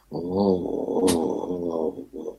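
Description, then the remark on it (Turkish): A carriage horse's pained groan, recorded in slow motion into a long, low, wavering moan, loud, with the carriage creaking, a brief hiss midway and a short second groan trailing at the end. “Ama çevreden gelen diğer seslerde ve arabanın gıcırdamasıyla atın canı evet. yanıyormuş gibi bir dikkatli dinlerseniz”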